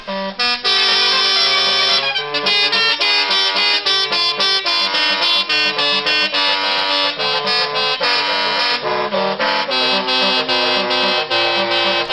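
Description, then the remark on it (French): Loud, brassy musical air horns fitted to a truck and wired to a keyboard play a continuous melody of sustained, harmonized notes, like a barrel organ, with rapid note changes and short pauses. No voices are heard. “Le mec, c'est un camion qu'il a équipé avec une série de trompes musicales reliées à un clavier et ça sonne comme un orgue de barbarie.”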